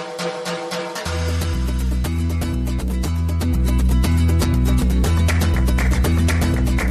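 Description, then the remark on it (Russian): A full band song plays loud, opening with bright drums and chords before a deep bassline kicks in after about a second, carrying a steady, driving beat with no talking. “Да, да, давай, давай заинтригуем тех, кто остался, и послушаем музыку, а потом ты расскажешь про правительство.”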